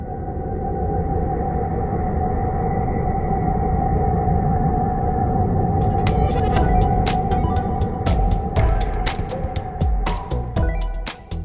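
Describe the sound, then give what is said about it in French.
Plasma waves between Saturn and one of its moons, captured by NASA and translated into audible sound: a dense, eerie rumbling drone with a steady whistling tone, and sharp crackling clicks that burst in during the second half. “Ces ondes magnétiques ont été traduites en sons audibles pour l'oreille humaine.”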